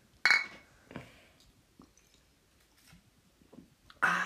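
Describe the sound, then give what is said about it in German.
Glass beer bottles clink together in a bright toast, followed by a few softer knocks and handling noises, then a louder clattering burst near the end; nobody speaks. “lange nicht mehr angestoßen im Poddy.”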